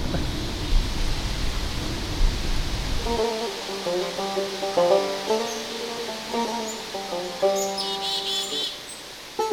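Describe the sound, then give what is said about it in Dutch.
A loud, rushing roar of wind fills the first few seconds, then cuts off abruptly, giving way to quieter high, tonal chirping notes. “ja gaat nu lekker waaien. Ja, de wind hoort ons.”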